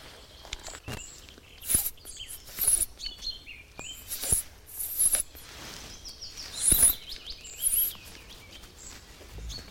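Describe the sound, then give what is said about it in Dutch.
A bird calls with thin, high chirps and short whistles, repeated irregularly over several seconds and sounding faint, with no voices present. “hoor hem roepen daar.”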